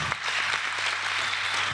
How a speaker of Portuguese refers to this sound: Palmas? Palmas, Sim. palmas.